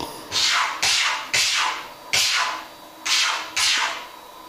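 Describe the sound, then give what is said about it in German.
A tomcat playing with a door scratches at it in six quick, raspy strokes that come roughly in pairs, moderately loud, with no one talking, at 3:16 in the morning. “Kratz, kratz.”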